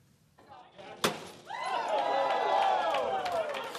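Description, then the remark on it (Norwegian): Project director David Codiga smashes a bottle of champagne to christen the new High Roller observation wheel, 160 metres in diameter, at the end of the Strip in Las Vegas, Nevada: a single sharp crash, followed at once by a crowd breaking into loud, sustained cheering and applause. “Prosjektdirektør David Codiga knuste som seg hør og bør en flaske champagne, og døpte den nye attraksjonen High Roller, hvilket den da også er.”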